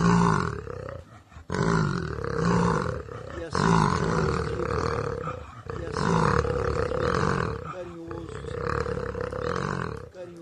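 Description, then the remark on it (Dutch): An angry jaguar growls and roars, loud deep rumbling bursts repeating in a steady rhythm with brief pauses between them, about five or six in a row. “Zullen we nog één keer naar hem gaan luisteren? De boze Jaguar.”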